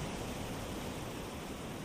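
A steady, hissing wash of ocean surf rolls onto a beach, continuous and fairly soft, with no distinct individual wave breaks and no voices.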